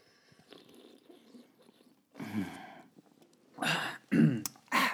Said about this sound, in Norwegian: Vi må ha den sånn nærme mikken, sånn at man hører det. det. blir liksom ikke like bra lyd nei, med det, boks. Nei, men det, jeg tror det kommer en lyd. Ble registrert en lyd. Vi kan prøve å lage en, en drikkelyd sånn at man hører det inn i mikken.